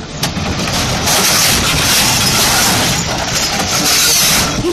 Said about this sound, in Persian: یه لودر داره سعی میکنه تو اون فضای کم که سنگ عظیم و جسه رو جابجا کنه چند تا کارگر ساده بدون هیچ ایمنی خاصی به فرمون میدن به لودر